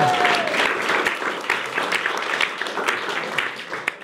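A studio audience breaks into a sustained ovation, dense clapping filling the room with steady, crackling applause that holds strong throughout with a few scattered louder claps.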